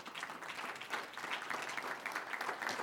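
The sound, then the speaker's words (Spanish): A group applauds steadily for about three seconds, many hands clapping in a dense, even patter at a moderate level with no voices over it. “Muy bien, un aplauso a ellos”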